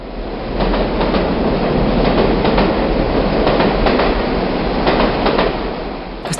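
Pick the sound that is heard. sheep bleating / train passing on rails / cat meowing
train passing on rails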